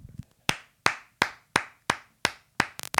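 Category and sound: human body sound, hand clapping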